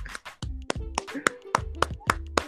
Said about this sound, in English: We should clap for Mo Salah.